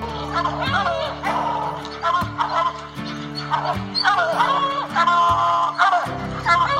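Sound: hunting hounds barking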